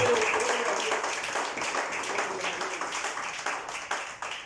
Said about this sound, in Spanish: Gloria a Dios, aleluya. Déselo al Señor ese aplauso.